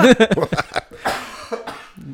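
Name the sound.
coughing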